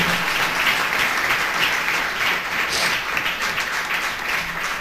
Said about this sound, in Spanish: Amén, amado hermano. ¿Cuánto le dan un aplauso a Cristo, amado hermano? Gloria al nombre de Jesús.